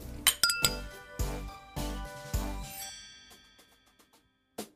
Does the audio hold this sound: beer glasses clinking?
yes